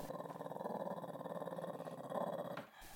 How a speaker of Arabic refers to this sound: خليني أشرح لك بمثال الكلب الكلب قدامي عم يعن وهو على وشك أنه يعضني